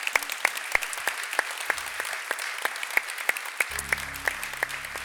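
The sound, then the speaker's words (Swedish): An audience on site in Malmö, Sweden, applauding a guest at the end of a business talk: a steady wash of clapping with sharp, evenly spaced claps cutting through at a brisk rhythm. A low humming tone joins underneath toward the end. “ge dagens största applåd till”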